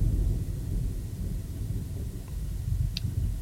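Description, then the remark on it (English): A low, continuous rumble of thunder from a storm with lightning rolls through the whole stretch, deep and steady without sharp cracks, with a faint brief tick near the end and no voices. “It is storming here, and I just saw lightning.”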